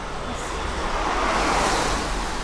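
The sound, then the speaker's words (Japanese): A car rushes past on a busy narrow street with a narrow sidewalk in Kamakura, Japan, its broad whooshing roar swelling toward the middle and easing off, over a steady low rumble of wind and traffic. “すごい車の音ブーンって入ってるかもしれない”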